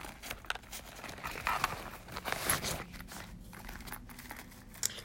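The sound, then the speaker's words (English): Quiet rustling and scraping as a calculator is slid back into a binder pocket, with crinkly plastic handling over a few seconds and a small click near the end. “Okay, let me put it back.”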